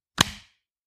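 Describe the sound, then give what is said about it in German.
A sharp hand clap on a countdown of three, two, one rings out once, fairly loud, with a brief ringing tail that fades within a few tenths of a second before silence. “Du hast zweimal geklatscht.”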